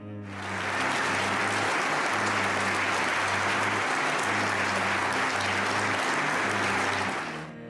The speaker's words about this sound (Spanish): Y también con una conmovedora ovación en Múnich a su esposa Julia, su compañera de lucha hasta el último momento.